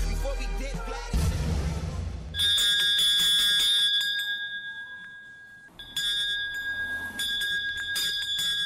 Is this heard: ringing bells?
yes